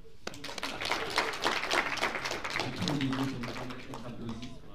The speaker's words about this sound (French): Vous pouvez encore une fois applaudir.